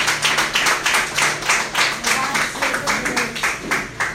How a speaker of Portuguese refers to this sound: Será que você pode aplaudir Jesus só mais uma vez?